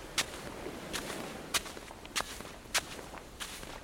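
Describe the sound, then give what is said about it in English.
Slow, heavy trudging footsteps of someone carrying a very heavy box, about six even thuds spaced roughly half a second apart, over a faint background hiss with no one speaking. “Someone has just come trudging along carrying a very heavy box.”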